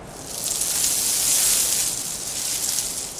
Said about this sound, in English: So, using only the sounds of Lego bricks and pieces, we created a playlist of soundscapes to promote mindfulness. This is Lego White Noise.